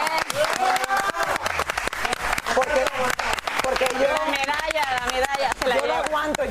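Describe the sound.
Sustained audience applause, a dense steady roar of many hands clapping at full volume, with voices cheering and calling out over it throughout.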